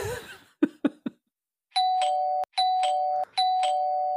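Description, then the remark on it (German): A few quick thumps, then an electric doorbell buzzes three times in long, steady rings with brief gaps between them, loud, with no one talking. “Ich mag die Klingel.”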